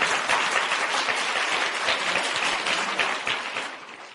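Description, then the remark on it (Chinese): A crowd at an Amway business gathering breaks into sustained applause for first-time attendees, dense overlapping claps forming a steady roar that holds strongly before tapering off slightly at the end, with no voices on top. “请大家为他们鼓掌。”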